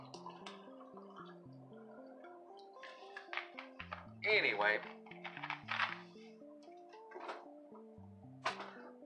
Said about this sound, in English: pouring me a drink because we can do this because this is very free form.